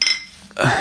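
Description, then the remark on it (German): Glasses clink together in a toast in a university office, a single bright ringing tap that fades quickly, followed by a burst of rustling noise. “Auf die nächsten zwölf. Prost.”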